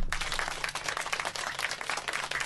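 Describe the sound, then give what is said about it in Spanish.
A crowd applauds steadily for a comedian guest, a dense wash of many hands clapping together at moderate volume, sustained without a break for a couple of seconds. “Este, aquí tenemos pues estoy lleno de, de, gente y yo pido por favor un aplauso para Josafat.”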